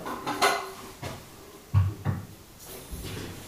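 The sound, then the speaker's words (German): A cupboard door opens and a thermos mug is taken out to prepare tea for work, giving a few knocks and clunks, a bright clatter early on, then two heavier thuds and softer bumps, with no talking. “Dazu brauche ich natürlich meinen guten alten Thermobecher.”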